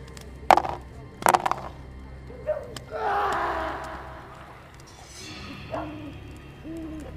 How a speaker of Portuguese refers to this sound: Vocês escutam um, um grito abafado vindo do, da borda do acampamento, onde vocês não conseguem ver, é muito escuro, além da, da iluminação que vocês usam.